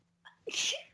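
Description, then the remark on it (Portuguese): A single sneeze, fairly loud, with a short intake of breath before a sharp, hissy burst that fades quickly. “Saúde. Vamos de novo, obrigada.”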